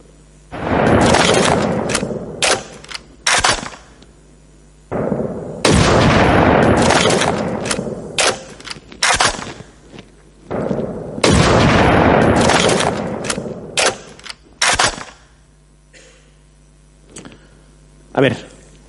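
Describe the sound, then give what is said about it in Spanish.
Three loud rifle shots ring out about five seconds apart, each followed by a long echoing decay, with a few fainter sharp cracks and clicks trailing at the end. “Vamos a ver, decidme cuántos disparos vais a escuchar ahora.”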